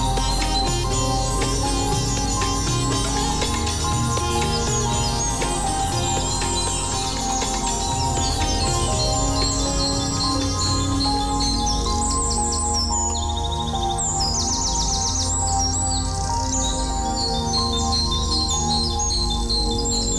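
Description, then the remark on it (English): Dense electronic music with steady beats and layered tones, mixed with found sound of chirping bird calls that come and go, growing busier toward the middle. No one speaks. “a mixture of electronic art and found sound put to music.”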